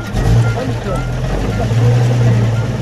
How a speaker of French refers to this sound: Ambiance musicale jazz et Charleston hier sur la place de la République, mais même sans musique, on baigne en pleine Seconde Guerre mondiale rien que par le bruit de certains moteurs.